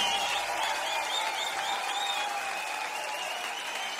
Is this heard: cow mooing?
no